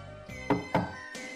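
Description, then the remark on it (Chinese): Two firm knocks on a door in quick succession, each a solid, resonant thump, followed by a softer tap a moment later, as the five poisonous creatures knock on an old man's door in a Dragon Boat Festival story. No one speaks. “一二一，一二一，稍息，立正，敲敲门。”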